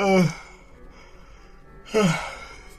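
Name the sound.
yawn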